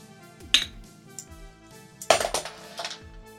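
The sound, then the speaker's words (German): A bottle being opened with a bottle opener for a New Year's Eve celebration: a few sharp metallic clinks against glass, with short pauses between them and no voices. “Wo ist denn der Flaschenöffner?”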